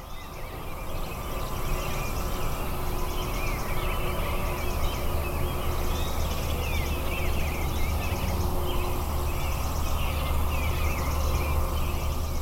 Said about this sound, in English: Well, there are a lot more birds there, but it's pretty hard for me to hear them. That's right. And, but what you do hear is the traffic from the interstate.